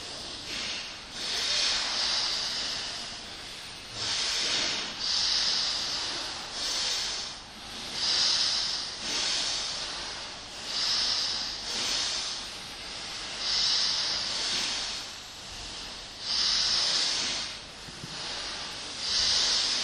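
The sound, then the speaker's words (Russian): Long, deep breaths drawn and pushed out with a strong airy hiss, repeating in a steady rhythm every second or two, fairly loud, with no talking. “Continue long, deep in the hissing breath.”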